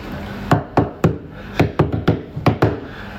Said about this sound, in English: knocking. Yeah. And we couldn't work out where it where, come where from. It come from yeah. yeah. and we went outside, couldn't work out where it mm. come from.